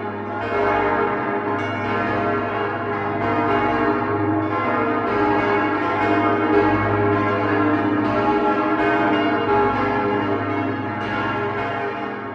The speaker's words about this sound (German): das sechsstimmige Geläute des Doms unserer lieben Frau zu Augsburg, das gerade erklingt